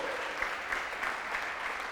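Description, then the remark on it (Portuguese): A crowd claps steadily in sustained applause, a dense wash of many hands with no pauses, fairly loud, with no voices standing out. “Dá um aplauso a ele aí.”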